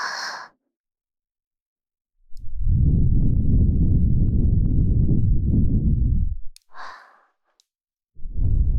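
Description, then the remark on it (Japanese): Breathy exhales into the ear from a bride soothing her groom: a long, loud sighing breath lasting several seconds between shorter puffs of air, with no talking. “お嫁さんの吐息、ちゃんと覚えてね。”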